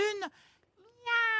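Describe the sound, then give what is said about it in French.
A person imitates a cat with two meows: a short first one that drops in pitch, then after a brief pause a longer, steady, nasal second one, both fairly loud. “Miaou, miaou. C'est bon, c'est un chat.”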